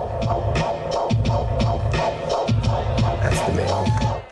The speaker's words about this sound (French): le battement de cœur était à ce rythme et il a construit son morceau autour